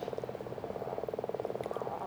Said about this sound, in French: C'est le temps des premiers batraciens. Crapauds communs et grenouilles rouges chantent. Pourtant, il fait à peine 10 degrés euh, sur le lac. En fond, le déversoir de l'étang couvre le silence des alentours.